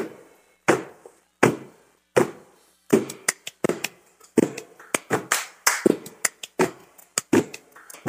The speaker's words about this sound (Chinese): 对对，所以你如果在听音乐的时候，你听到那个第一个脚步声，应该就是最胖的人，应该就是我吧？